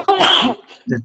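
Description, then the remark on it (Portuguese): A single loud sneeze bursts out sharply, followed by a short pause and a brief vocal sound afterward. “Opa, saúde!”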